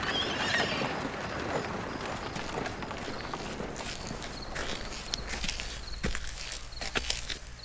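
A horse whinnies loudly at the start, then its hooves clop in a quick, steady trot that continues throughout, with no voices.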